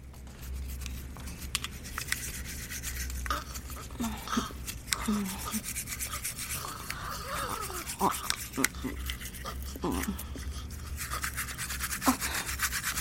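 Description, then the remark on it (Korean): Steady, scratchy scrubbing of a toothbrush working back and forth as two people brush their teeth side by side at a bathroom sink in front of a large mirror, continuing throughout with a few faint wet clicks and low hum underneath. “우리는 화장실 세면대에 나란히 서서 커다란 전면 거울에 비친 모습을 바라보며 이를 닦았다.”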